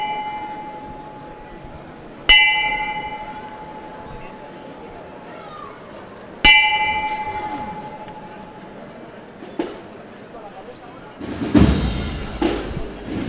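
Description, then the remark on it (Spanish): Two clear strikes of a bell, rung as bearers prepare to lift the float of Christ taken down from the cross (El Descendimiento) in a procession on Bernabé Soriano street, each ringing out and slowly decaying, spaced a few seconds apart over a murmuring crowd, followed by shuffling and movement. “Ahí suena la campana.”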